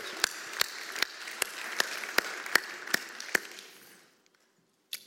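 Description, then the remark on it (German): Audience applause welcoming two guests as they come to the front: a dense bed of clapping with about nine loud, evenly spaced claps riding on top in a steady rhythm, fading out after about four seconds into near silence. “Kommt doch bitte jetzt nach vorne und gebt ihnen einen Applaus.”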